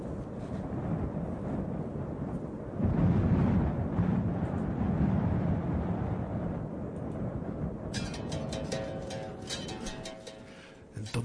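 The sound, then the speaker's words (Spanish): A deep, rolling thunder rumble surges loudly after a few seconds and keeps growling through the storm before slowly fading, with windy noise underneath and faint crackling near the end. “Los truenos tienen la intensidad de la risa del barón Samedi.”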